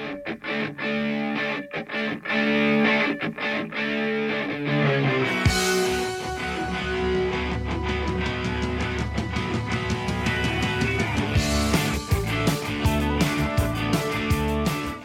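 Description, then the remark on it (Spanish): A pop rock song plays on its own with no talking, loud and steady with driving drums and distorted guitars; the bass kicks in a few seconds along and the full band swells. “es que de fondo está la canción de, de Coyote Ugly”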